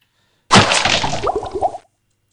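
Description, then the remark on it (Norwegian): A short video-game sound effect of a chest bursting open, followed by a potion dropping out with quick bubbly, liquid plops that trail off after about a second. “Jeps, det er tre lyder igjen, så du åpner en kiste, så ramler det en potion ut.”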